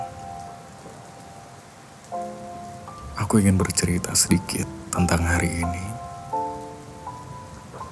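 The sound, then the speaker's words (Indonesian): Steady rain patters in the background throughout, a soft continuous hiss under a man's calm spoken voice, with gentle music tones drifting in and out. “tentang musim hujan yang hadir”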